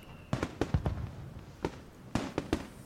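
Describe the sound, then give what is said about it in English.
Fireworks crackle and pop in quick, irregular clusters at a Moon Festival celebration, roughly ten sharp bursts with a short pause between volleys and no voices. “the fireworks are lovely, though, aren't they?”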